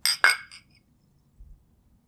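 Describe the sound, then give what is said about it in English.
Two bright glass clinks ring out close together in a toast with Saratoga Sparkling Spring Water, followed by a fainter third tap as the tones fade, then a soft low thump. “Cheers. Cheers”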